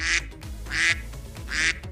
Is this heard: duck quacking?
yes